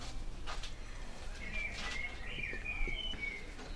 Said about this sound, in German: Man kann auch einfach mal den Vögeln zuhören. Man kann einfach mal die Fresse halten und die Vögel zuhören, genau. Schön.